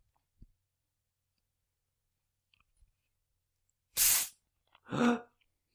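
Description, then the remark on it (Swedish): A full, normal bottle of 7-Up is cracked open: a sharp, bright hiss of escaping gas, then a second rougher fizzing burst a moment later, with faint clicks in the near silence before. “Är det en normal 7-Up? Ja, det är en hel, det är liksom en, en 7-Up.”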